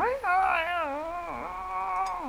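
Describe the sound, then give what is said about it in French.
A person mimics the caterwaul of cats in heat, drawing out one long, wavering, nasal yowl that rises and dips in pitch for a couple of seconds, fairly loud. “Et euh, j'ai le, souvenir de les cris des chats, euh, des chats en rut comme ça”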